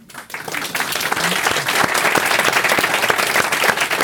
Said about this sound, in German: Applaus